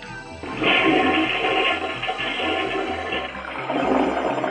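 A toilet flushes with a loud, sustained rush of water that surges after a brief start, churns steadily for several seconds, then swells again near the end. No voices are heard.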